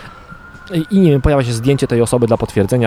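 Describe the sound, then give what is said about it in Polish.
An ambulance siren wails steadily outdoors, holding a high tone that fades as a person starts talking over it. “Tak, dzisiaj karetka słychać, że jesteśmy na zewnątrz”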